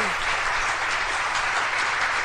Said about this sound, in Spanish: Voy a quemar los aplausos, ¿verdad? si los pongo en todas. Se me que se van a dar cuenta que no es de aquí. a decir, ah, es se me que son, no, son aplausos genuinos,